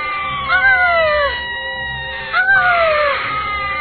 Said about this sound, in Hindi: भूतिया गुड़िया चीखती रही और उसे एक बक्से में बंद कर दिया